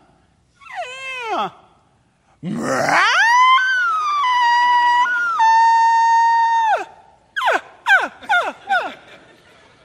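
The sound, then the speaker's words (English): A bull elk bugles loudly in a canyon in pitch darkness: a short falling call, then a rising squeal into a long, sustained high whistle that drops off, followed by several sharp grunting chuckles. “That was the bull elk.”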